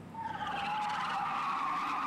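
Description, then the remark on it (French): A truck's tires let out a loud, sustained squeal as it skids hard and runs a man over, a high shrieking tone that holds steady for about two seconds, with no voices. “il fut renversé par un camion.”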